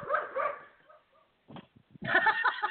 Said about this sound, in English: We're gonna hear dogs for a minute, guys.